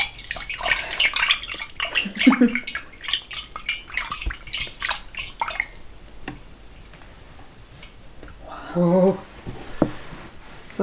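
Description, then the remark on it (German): Melted wax is poured into water, forming a wax cloud in the water, making crackling drips and small splashes that tick irregularly over several seconds, with brief murmuring voices in the background. “eine Wachswolke im Wasser entstanden.”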